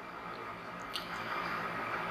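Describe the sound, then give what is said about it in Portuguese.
Quiet sounds of someone drinking water: soft wet sips followed by a gulp, with no talking. “Pausa pra água de novo pra eu não ficar tossindo.”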